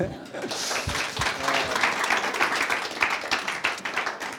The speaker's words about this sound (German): Und es ist einfach, ja, ihr seid die Besten. Gebt euch einen Applaus.